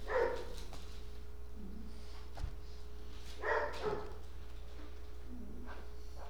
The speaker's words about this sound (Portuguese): que o Charlie tá latindo. Ah, é só tem culto que ele começa.